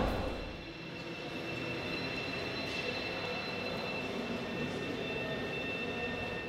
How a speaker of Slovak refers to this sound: zvuk a že vlastně jak je to spjatý s tím životem nebo s tou cestou nádražím, zvuky nádraží, tak právě takový taky zase ta nejistota toho, odkud ten zvuk jde, jestli je součástí a nebo je vlastně přirozeným zvukem, co teď a tady probíhá, tak je fajn.